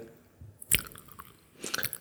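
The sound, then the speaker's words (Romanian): Crunchy chewing of peanuts: a sharp crack near the start, then a quieter pause and a second burst of rapid, crisp crunches, with no talking. “Te-aș ruga să nu mănânci totuși.”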